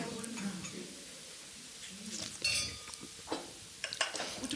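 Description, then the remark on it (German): Wine glasses filled with Utopie wine by a winemaker clink together in a toast: a bright ringing clink, then a few lighter taps a moment later, with soft murmuring voices underneath. “Also sehr zum Wohle. Zum Wohl. Prost.”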